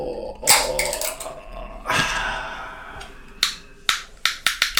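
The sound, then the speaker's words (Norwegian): A swing-top beer bottle is opened with a sharp pop and a brief fizzing hiss, followed by a quick series of crisp clicks as the metal clasp is snapped back and forth. “Det er med sånn knipseknepper.”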